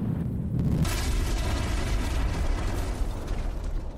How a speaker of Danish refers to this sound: Forbrænding? Det lyder som noget med ild. Det kan man roligt sige. Faktisk er der tale om eksplosioner.